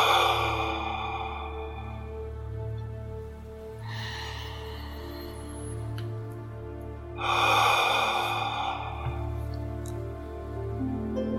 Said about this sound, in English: Take three slow, deep breaths. And as you breathe out, let go of any tension.